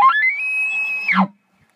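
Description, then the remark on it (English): A person imitates an elk's challenge bugle to provoke a bull elk: a loud, high whistle climbs and holds steady for about a second, then drops sharply into a brief low grunt. “So I just let out the loudest, meanest challenge bugle, and as I'm chuckling, I just hear.”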